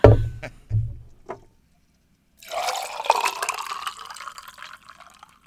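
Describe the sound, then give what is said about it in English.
A few dull clunks and knocks, a brief pause, then a cocktail being poured from a bucket, a steady splashing stream of liquid lasting about three seconds before tapering off. No one speaks. “I did make a bucket of it, and I gotta pour myself some more before we talk about the Brewers series”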